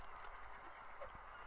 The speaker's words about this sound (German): Da ist die Möwe. Hau ab! Doofes Vieh!